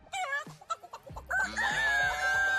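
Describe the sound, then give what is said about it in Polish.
A chicken squawks and clucks in a few quick bursts, then a rooster lets out a long, loud crow that holds steady to the end. “Morskie kurczaki?”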